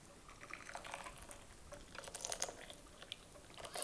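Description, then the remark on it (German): Slightly cooled hot water trickles and splashes softly as it is poured over pressed tea leaves to open them before the first infusion, a quiet, steady pour with light crackling and dripping, with no talking. “Wir öffnen jetzt also die Blätter die können also beim nächsten, beim richtigen ersten Aufguss direkt äh, voll in Kontakt mit dem Wasser kommen”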